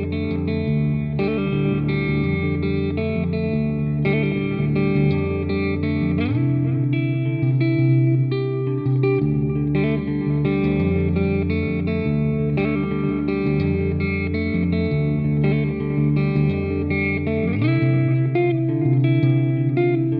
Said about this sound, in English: a little bit of analog delay, and a touch of very tasteful spring reverb, just to just to have a little bit of a a little bit of a clean riff, so we could sort of hear hear what it sounds like when I'm not just you know not just being an idiot.